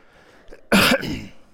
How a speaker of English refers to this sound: I don't know how to cough without coughing into the mic, so um, we'll figure that out.